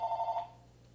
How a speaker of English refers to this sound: no that's the house phone sorry everyone we thought we turned that off clearly we did not we'll do that right now though um sorry about that if last time it was the cell phone now it's the house phone